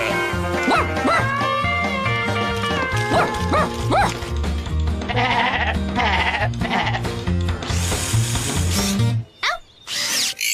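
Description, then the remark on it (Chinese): Several wavering sheep bleats, from sheep being rounded up onto a truck for a sheepdog competition, rise over busy background music and the whir of a power drill, with the sounds cutting out briefly near the end. “已经赶四只上车了， 那外面还有几只羊呢？”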